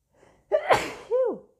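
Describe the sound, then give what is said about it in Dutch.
A single loud sneeze: a faint breathy intake, then a sudden explosive burst that trails into a short vocal, whining tail. No talking alongside it. “Gezondheid.”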